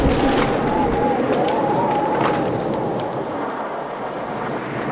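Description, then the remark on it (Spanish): A loud, continuous roar of a violent storm at sea with deep rumbling thunder and howling wind as a ship is lifted into the air and its masts torn off, sustained throughout and easing slightly toward the end, with no voices. “El Dios de la gloria hace oír su trueno.”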